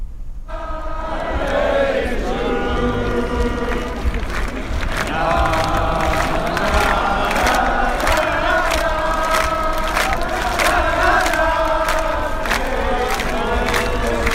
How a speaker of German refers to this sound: Hat irgendwann die, die Meute angefangen dann zu singen